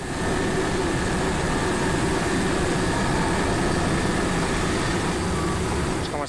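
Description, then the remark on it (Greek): A rescue helicopter taking part in airlifting trapped people lands at a football ground in Karditsa, Greece, its heavy engine and rotor noise steady and loud throughout, with a deep low rumble and no voices heard. “στο γήπεδο του Αστέρα Καρδίτσα, εδώ που προσγειώνονται τα ελικόπτερα που συμμετέχουν στι αποαέρο προσπάθειε απεγκλωβισμού ανθρώπων που έχουν εγκλωβιστεί.”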